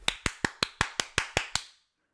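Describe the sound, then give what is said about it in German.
A short burst of hand clapping: about nine sharp, evenly spaced claps in quick succession, fairly loud, then silence. No one speaks over it. “Das ist dein Applaus, muss reichen.”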